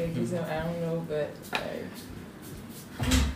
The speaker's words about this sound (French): Attendez, quelqu'un tape à la porte, c'est le live.